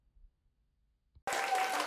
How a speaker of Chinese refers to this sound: 哈利路亚！要拍手就大声一点吧，耶！